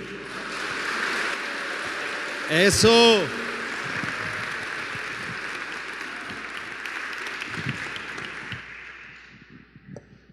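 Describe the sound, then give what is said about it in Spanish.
An audience at a morning church service claps for the Lord Jesus in a steady, sustained wash of applause lasting several seconds, with a brief shout or cheer rising over it early on before the clapping fades out. “Ahora démosle un aplauso ya despiertos, ya uno despiertos.”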